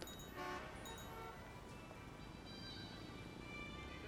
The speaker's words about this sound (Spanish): Escucho el ir y venir del tráfico, las conversaciones de la gente tan ajenas a mi realidad.